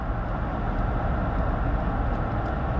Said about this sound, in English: And you pew sitters, who listened to this little old podcast of a nobody dude driving a 20 year old pickup truck.